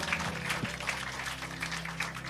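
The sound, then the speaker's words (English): An audience claps steadily for a couple of seconds, applauding its own large turnout at an evening gathering where communion is served: a dense, even patter of many hands, with a low sustained hum underneath. “Give yourselves a round of applause.”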